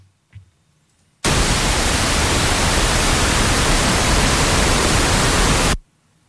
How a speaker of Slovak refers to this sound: A teraz si pustíme ten posledný extrém, teda ten, ktorý má nekonečne veľký činiteľ výkyvu a to je nahrávka, ktorá obsahuje šum, v podstate šum.